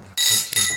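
Two glasses clink together in a toast in quick succession, each strike bright and ringing with a shimmering high tone that lingers briefly, fairly loud, with no voices.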